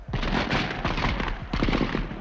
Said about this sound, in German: Als Mitarbeiter der Kruppwerke die Beschlagnahmung ihrer Lastwagen durch die Franzosen zu boykottieren versuchen, feuern die Soldaten blind in die Menge.